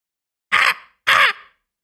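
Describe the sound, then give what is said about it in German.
A voice imitates a raven, giving two loud, harsh caws about half a second apart, each rasping and short with a quick fade, with silence around them. “Ja, es soll ein Rabe sein tatsächlich.”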